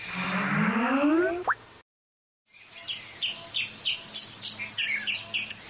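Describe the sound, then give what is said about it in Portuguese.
A cartoonish rising swoop stops abruptly, and after a brief silence a bird chirp effect marking a tweet being sent to a fairy follows: about nine short, high tweets in a quick, even rhythm, with no voices. “Vou já enviar-lhe um tweet.”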